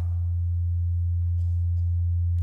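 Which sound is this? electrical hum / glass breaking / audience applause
electrical hum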